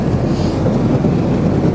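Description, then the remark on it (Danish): A boat's hull pushes steadily through a thin layer of ice on the water, giving a continuous loud rumbling, grinding churn with low engine drone and crackly texture, without pause. “Det er faktisk sådan, at båden den skærer sig igennem et tyndt lag is.”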